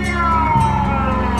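A loud air raid siren on Napoleon Hill in northern Ramat Gan, sounding at two in the afternoon to announce the start of the Yom Kippur War, wails in a sustained, steady tone that glides slowly downward in pitch, holding continuously with no voices present.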